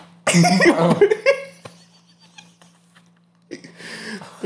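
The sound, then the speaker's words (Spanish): A person eating very spicy food gags and retches: a loud, harsh, choking burst, a short quieter stretch with faint throat noises, then another strained retch. “no vomites, weón, por favor.”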